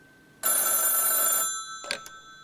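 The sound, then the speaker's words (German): An old mechanical 1970s telephone bell rings in one loud, harsh burst of about a second, followed by a brief clatter, with no voices; the phone has a coiled cord, plugs into a socket, has a heavy grey housing and is in a corner shop in Engeltal, Middle Franconia, Germany. “und da weiß ich noch nicht, dass mein Anruf auf einem Telefon entgegengenommen wird, wie es sie in den 70er Jahren gegeben hat.”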